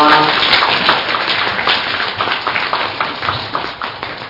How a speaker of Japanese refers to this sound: 皆様お二人大きな拍手をお願いします